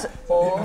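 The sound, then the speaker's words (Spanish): Glasses clink together in a toast to health, one bright knock followed by a short ringing tone that fades within a moment. “Por salud, salud, todo le salió bien sí.”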